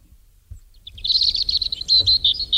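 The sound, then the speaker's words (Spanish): A dense flurry of high, rapid bird chirps and twitters fills the scene continuously after a brief quiet start, with faint low rumble underneath and no voices. “Constantemente pájaros.”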